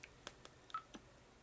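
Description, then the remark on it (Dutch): A short, faint electronic beep from a voice recorder sounds once among a few soft button clicks, quiet and close, with no voices. “Zodat we zijn gepiep beter kunnen horen.”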